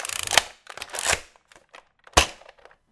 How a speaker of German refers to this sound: Hat man das gehört? Also ich habe es auf jeden Fall gehört. Okay, das war ein Nerf-Gewehr.